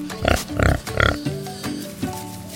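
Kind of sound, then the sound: animal, wild boar grunting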